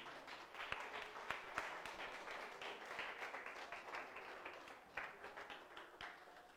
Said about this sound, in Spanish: Dale la ofrenda de palmas bien fuerte al Señor.